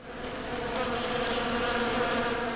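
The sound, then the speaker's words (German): A dense swarm of bees buzzing continuously, a steady droning hum with layered wingbeat tones, fairly loud, with no voices. “Ein Bienenschwarm ist ein gutes Beispiel für das, was Wissenschaftler Schwarmintelligenz nennen.”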